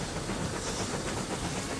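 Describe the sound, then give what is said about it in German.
A steam train departs on the railway to Mechelen, rolling along steadily with a dense hissing rumble and faint rhythmic clatter of wheels on rails, loud throughout, no voices. “Die Remoqueure, die Lokomotiven, fangen an zu stöhnen, die Stöße werden immer schneller und dahin fliegt der Zug.”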